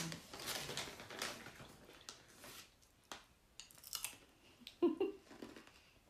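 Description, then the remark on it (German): Crunchy chewing of original caramel popcorn mixed with crinkly rustling of a packet, irregular bursts over several seconds, fairly quiet with a sharper crackle near the end. “wir wollen wissen, wenn wir das dann anhören, wie krass es raschelt.”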